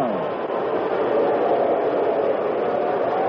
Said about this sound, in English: The reaction you hear from the crowd is because that ball was around Mantle's head. Mickey backing away.